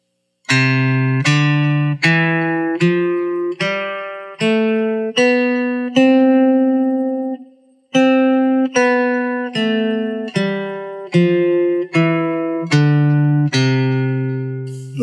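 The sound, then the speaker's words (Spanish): A C major scale played note by note on a bright, electronic keyboard tone, eight steady steps climbing up, a held top note, then eight steps back down, clear and alone. “Y primero vamos a escuchar la escala de do mayor que suena así.”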